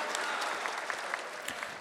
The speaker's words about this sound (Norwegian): Applaus til Polens nye statsminister.